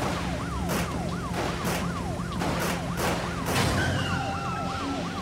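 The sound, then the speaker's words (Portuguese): A police car's siren wails in a fast, repeating up-and-down pattern as it turns around and chases another car, loud and continuous, over the rumble of traffic, with a second higher siren tone joining near the end. “O carro da polícia deu meia volta e começou a seguir o carro.”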